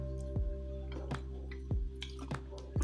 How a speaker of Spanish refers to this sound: Un poco de agua porque hace un calor.